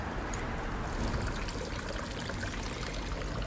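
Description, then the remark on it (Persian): Water from a fountain near a hotel, whose basin holds a statue of two men holding a wounded man, splashes and trickles steadily in a continuous, even wash of sound, with one brief brighter splash near the start and no voices. “نزدیک هتلمون یه فواره است که دو تا مرد توی مجسمه وسط این حوز یه نفر دیگه که انگار زخمیه رو بغل کردن”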